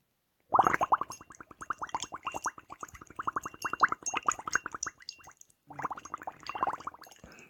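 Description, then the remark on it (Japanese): Steady bubbling as breath is blown through a straw into water in a cup or bowl, a rapid train of gurgling pops running for several seconds, pausing briefly, then resuming. “ただ息をブクブクブクと吐き続けるだけです。音聞こえるかなという、こんな感じですね。”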